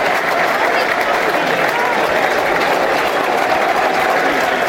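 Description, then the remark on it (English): A large stadium crowd at a Millwall football match applauding steadily from the 59th minute, apparently for a Millwall fan who recently died, a dense, sustained wash of clapping and crowd noise that holds at an even, loud level throughout without pause. “Um, applause from the 59th minute, I think.”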